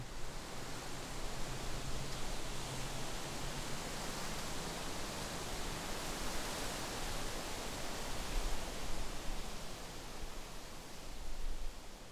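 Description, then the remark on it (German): A steady, dense rustling hiss of wind moving through oak leaves, a strongly high-frequency rustle from the lobed leaves and firm branches, continuous and fairly loud with slight swells, no voices present. “In seinem Buch Bäume tief verwurzelt schreibt der Autor Andreas Hase über diesen charakteristischen Klang: Das Rauschen der umtosten Eichenblätter hat nicht den sanften Nachklang der Linde, nicht das kecke Säuseln der Birke”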